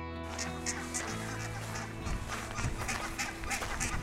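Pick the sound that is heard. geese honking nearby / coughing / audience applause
geese honking nearby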